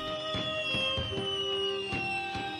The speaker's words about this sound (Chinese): 这烟花可真美呀！